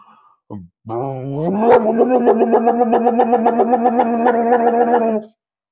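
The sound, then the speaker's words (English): A voice imitates a skidoo snowmobile engine revving: a short sputter, then a rising, throaty drone that holds steady with a rapid pulsing rattle for several seconds, loud. “And then I she she revs her skidoo, which I need to even do a sound effect for it because it is monstrous.”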